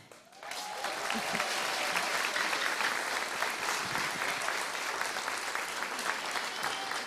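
An audience at a gathering led by a pastor breaks into sustained applause to welcome a grandmother, a dense crackle of many hands clapping that swells quickly after a brief quiet start and holds steady and loud for several seconds.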